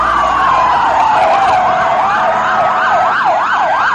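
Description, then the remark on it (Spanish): Several emergency sirens wail at once as ambulances leave the scene followed by police cars, overlapping yelps and rising-falling tones, loud and continuous as the vehicles pull away, with road noise underneath and no talking. “Las ambulancias parten del lugar, seguidas de los coches de policía.”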